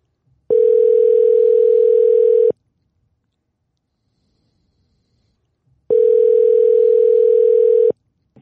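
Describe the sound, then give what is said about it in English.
A telephone dial tone sounds twice as a phone call is placed, each a steady, loud electronic hum lasting about two seconds, separated by a few seconds of silence. No one speaks. “Should we get him on the phone?”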